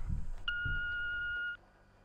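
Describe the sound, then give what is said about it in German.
A single steady electronic beep, about a second long and clear, from a family's answering machine after its greeting asks callers to leave a message, over a faint low rumble with no talking. “Das ist der Anrufbeantworter von der Familie äh, Wittmer. Sie können uns nach dem Pieps eine Nachricht hinterlassen.”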